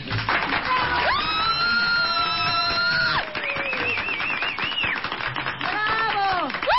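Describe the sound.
Steady audience applause, a dense crackle of many hands clapping that lasts the whole stretch, with several long, high whistles and cheering voices rising above it.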